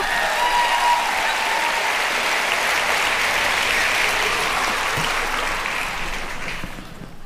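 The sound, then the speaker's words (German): A live audience applauds a photo shown by the host, a steady dense wash of many hands clapping at moderate loudness, holding for several seconds before gradually thinning out and fading toward the end. No talking over it. “Bisschen verlegen, der Applaus.”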